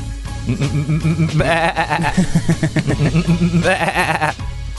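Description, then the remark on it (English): Several sheep bleat loudly, overlapping wavering cries repeating almost continuously, with a brief pause before another strong bleat near the end. “Somebody's there with a crook and they're just hurting the sheep.”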